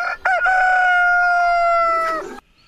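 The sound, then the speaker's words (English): A single rooster crows loudly, a brief rising start stretching into a long, sustained cock-a-doodle-doo that fades off after about two seconds, with no talking. “That is a rooster.”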